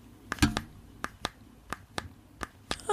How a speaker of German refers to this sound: Ich habe das Drücken auf einer ähm, Fernbedienung hier. Warte mal, vielleicht geht das.